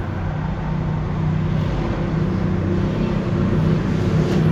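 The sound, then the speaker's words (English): Loud, steady road traffic fills the whole stretch: a dense, constant rumble of engines and tires with a deep low-end drone and no voices. “Damn, this traffic is loud.”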